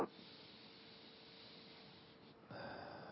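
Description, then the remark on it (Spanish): A long, deep breath drawn in, a steady airy hiss lasting a couple of seconds before turning slightly louder and rougher at the end. “Tomando una respiración profunda.”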